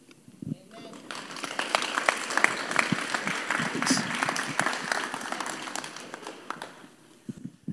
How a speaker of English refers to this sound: Hey, let's give these guys one more round of applause. Big one.